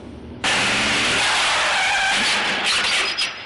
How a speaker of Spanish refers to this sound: Ha chocado con otro coche. Un gendarme que estaba multando a un camionero se vuelve alertado por la colisión.